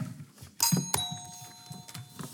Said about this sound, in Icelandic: Þá er komið að bjöllarspurningunum og við ætlum að fá að heyra í bjöllunum.